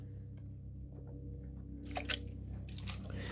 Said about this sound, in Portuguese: Vou tomar aquele meu gole d'água.